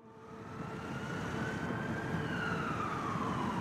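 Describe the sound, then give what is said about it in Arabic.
A white ambulance's siren wails steadily, its tone sliding slowly downward over a low, rumbling engine drone that stays loud and constant throughout, with no voices present. “داخل عربة إسعاف بيضاء اللون جلست سيدة ثلاثينية مرتدية معطفا من الصوف بني اللون أسندت رأسها بحزن على يدها اليسرى فيما تشبثت يدها اليمنى بجثمان أمامها مسجى بعلم أخضر”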